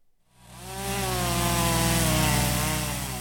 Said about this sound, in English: There's always chainsaws once a storm like Idalia moves out, but once the city of Valdosta clears the roads, it gets quiet.